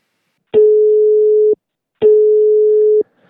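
telephone call ringing

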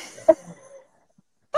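wine bottle being opened

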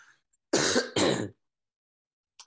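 coughing and throat clearing

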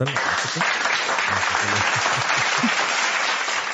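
applause sound effect

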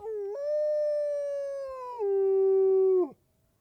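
wolf howling

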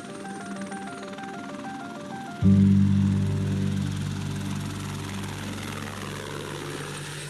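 helicopter flying

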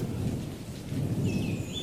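rain falling

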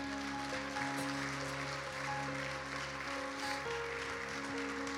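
audience applauding

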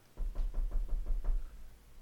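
knocking on a door

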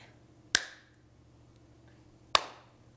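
single hand clap

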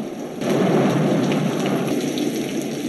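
heavy rain with thunder

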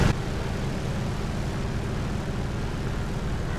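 aircraft taking off

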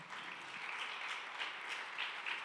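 audience applauding

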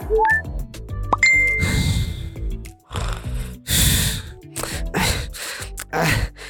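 phone message notification chime

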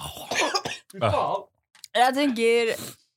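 coughing

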